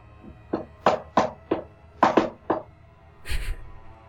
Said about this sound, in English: And then there is the sound of knocking at the door.